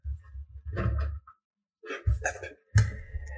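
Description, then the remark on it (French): A cat bumps and rubs against a microphone, making muffled thumps and scuffing handling noise in three bursts, with a short silence in the middle and no talking. “Ah non, pas le son du micro, petit chat.”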